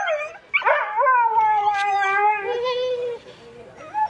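A husky gives a couple of quick, high yips, then slides into a long, wavering howl that trails off, fairly loud, with a brief yelp at the end.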